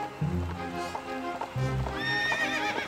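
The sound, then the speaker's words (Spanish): Horse hooves clip-clop in a steady rhythm, fairly loud, as the horse is ridden toward a hill, while it lets out a high, wavering neigh near the end. “extendía las riendas de su caballo, cabalgando hacia la colina para poder observar las posiciones del ejército enemigo”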